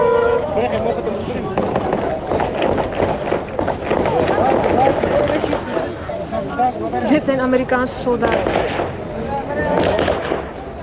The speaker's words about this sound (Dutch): We zijn bij de ingang aangekomen voor de militairen, Amerikaanse militairen. Maar het is zo druk en er wordt zo vaak geschoten.